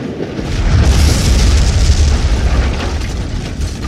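A massive explosion of explosives laid under the rails blows up half of a railway bridge, derailing a German train whose first cars fall into the river; it roars with a deep, rumbling low end, sustaining its loud, dense blast for several seconds before easing slightly; no voices are present.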